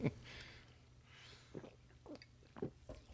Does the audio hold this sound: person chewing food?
yes